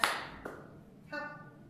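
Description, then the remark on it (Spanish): Two sharp hand claps given as applause for two women, the first loud with a short wash of noise after it, the second a quicker slap. A steady, buzzy tonal sound then takes over to the end. “Un fuerte aplauso, aplauso y abrazo para ustedes, las dos Nos vemos a la próxima.”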